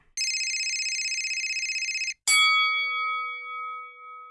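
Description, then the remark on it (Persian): A telephone rings with a rapid, steady metallic trill for about two seconds, then stops; a single bright bell strike follows and slowly rings out. Clear, with no talking. “سر و صداهایی مثل صدای صحبت کردن اطرافیان، صدای زنگ تلفن یا در”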